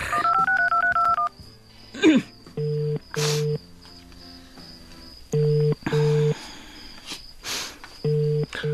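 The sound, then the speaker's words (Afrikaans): A quick run of touch-tone dialing beeps, then a phone's steady ringback tone repeating in short paired bursts with gaps between, as a call to a car service garage goes unanswered. A few soft rustles occur between rings. “En nou antwoord hulle nie hulle foon nie.”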